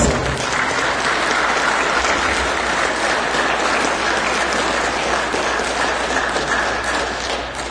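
Steady, dense audience applause for a brother who has come from Lima, many hands clapping at once, loud and sustained throughout without pause, with no voices rising above it.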